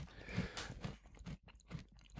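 Close, crunchy chewing of a crisp snack, with repeated crackling bites and crunches in a loose rhythm over a couple of seconds, fairly quiet and up near the microphone.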